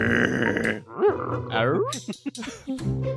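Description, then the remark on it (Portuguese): A person vocally imitates a wolf's growling response, producing rough, gravelly growls and yelps with rising and falling pitch over a few seconds, fairly loud. “E o lobo responde.”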